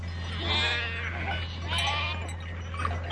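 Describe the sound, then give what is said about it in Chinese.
Several sheep in a flock bleat in overlapping, wavering cries, with two main bursts of calls over a steady low hum and a constant murmur of background noise. The flock, in the Ketchum area, is guarded by white sheepdogs and driven by black sheepdogs. “牧羊犬各负其责，白色的牧羊犬保护羊群不受野兽侵犯，黑色的牧羊犬帮助驱赶羊群。”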